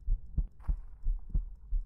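A muffled human heartbeat, heard with an ear pressed against the chest, thumps steadily, about six deep, low beats in under two seconds, with nothing else in the sound.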